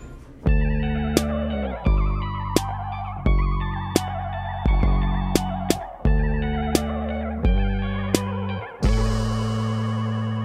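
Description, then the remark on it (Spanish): A pop song intro built on 808 drums: deep, booming bass notes that shift every second or so, crisp snappy hits on top, and layered synth chords washed in effects. No one sings or speaks. “con baterías 808 que usábamos mucho en ese disco.”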